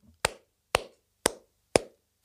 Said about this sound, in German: Ich wollte sagen, langsam klatschen, aber okay, deine Fantasie.